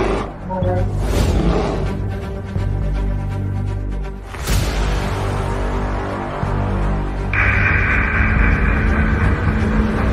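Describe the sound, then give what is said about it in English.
A grizzly bear roars loudly in a long, rough, rumbling growl that keeps going, pausing briefly partway through before surging again, with a thinner higher tone joining near the end. “It's a grizzly.”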